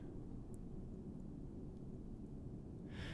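A deep, steady roar of F-18 Super Hornet jets practicing out of Naval Air Station Oceana in Virginia Beach, Virginia, a low continuous drone that fills the whole stretch with no voices over it.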